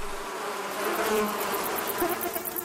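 A dense, continuous hum of honey bees buzzing, a steady swarm-like drone with wingbeat pulses rising and falling slightly, no voices present.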